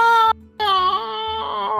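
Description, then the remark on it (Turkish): A distant scream sound effect from up on the hill by a mansion, on empty streets under light fog: a short shrill cry, a brief pause, then a longer sustained wailing scream with a wavering high pitch, loud and with no talking. “diye böyle çok uzaktan bir çığlık sesi geliyor.”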